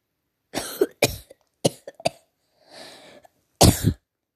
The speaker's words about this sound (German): Hör auf zu husten. Wir sind hier in der Corona-Krise. Willst du mich anstecken oder was?